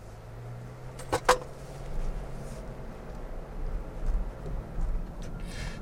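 A smartphone drops inside a moving car as it is about to pull into a parking lot, making a brief, sharp clatter with a couple of quick knocks, then steady low engine and road rumble continues with no voices.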